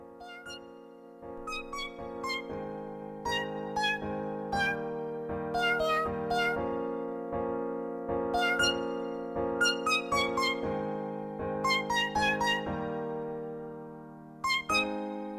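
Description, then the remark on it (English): A keyboard tune played with pitched cat meow samples, the meows hopping through a bouncy melody over sustained low chords, loud and steady throughout with no talking. “All right, here's your next cat keyboard song.”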